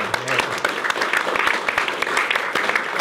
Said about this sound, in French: Tout d'abord, Myriam Palomba, journaliste et chroniqueuse, on peut l'applaudir.